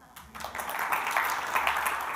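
An audience breaks into applause, the dense crackle of many hands clapping rising quickly and holding steady at a moderate level for a couple of seconds, with no voices on top.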